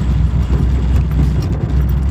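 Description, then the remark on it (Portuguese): Steady, loud low rumble of road noise from inside a car moving in traffic, a continuous engine and tire drone with no one speaking. “É, desculpa novamente aí os, o barulho, os ruídos, porque eu estou no trânsito aproveitando esse tempo para falar com vocês.”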